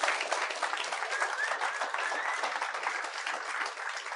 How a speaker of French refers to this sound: J'aimerais ça qu'on les applaudisse.